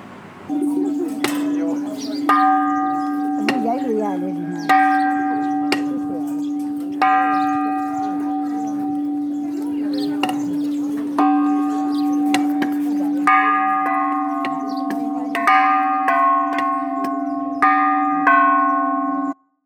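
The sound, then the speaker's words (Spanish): A bell is struck with a piece of wood, alternating with knocks of the wood on the floor, floor then bell, three times in a steady pattern. The bell's tone rings on between strikes, loud, with no talking. “con el trozo de madera en el suelo, golpeaban la, la campana. En el suelo, campana, el suelo, campana, así tres veces.”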